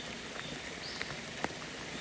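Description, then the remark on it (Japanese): Steady soft patter of rain with a few sharper, distinct drop impacts standing out: large drops collected in the trees fall inside a wood while the rain outside is weakening, over a constant wet background hiss. No voices. “樹幹に溜まってるこう雫が落ちてる感じですね”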